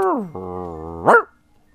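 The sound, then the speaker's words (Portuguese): A person's voice imitates a caramel-colored Brazilian mutt dog (vira-lata caramelo): a whiny descending howl slides into a long, low growl, then ends in one sharp rising bark, fairly loud, with silence after. “pega o dinheiro, o cachorro, o cachorro late, isso é legal.”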